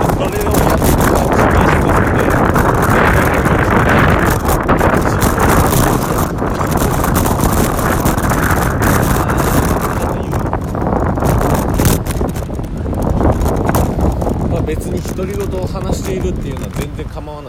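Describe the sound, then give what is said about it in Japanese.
Loud, constant wind buffeting a microphone while riding a road bike along a roadway in the Kansai region of Japan, on the way to take the bike for repair, a dense roar with gusty fluctuations throughout, and a man talking loudly over it, partly masked by the rush of air. “今ですね車道を走りながら、えー、一人めちゃめちゃ大きな声で喋ってます大丈夫か大丈夫じゃないかといえば大丈夫じゃないのかもしれません”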